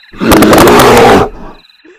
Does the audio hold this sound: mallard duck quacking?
no